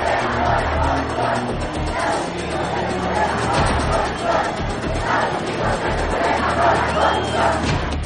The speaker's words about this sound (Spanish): Los manifestantes gritan sus consignas en contra de la guerra y del presidente de los Estados Unidos.